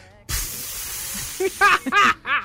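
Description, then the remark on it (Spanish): A voice imitates steam: a long, loud breathy hiss, then several short vocal bursts with rising and falling pitch, close and clear with no other sounds. “Y de pronto, sí, de pronto un día entra ella al, vapor a hablar con él y ella, él le contesta como vaporazos”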